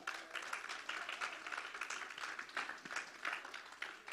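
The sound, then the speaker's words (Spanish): A church audience applauds itself at a preacher's call for a loud round of applause, many hands clapping in a dense, continuous patter of sharp bright claps that holds at an even loudness throughout, with no voices standing out. “Dese usted mismo un fuerte aplauso.”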